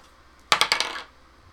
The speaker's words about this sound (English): And rolls a three on the dice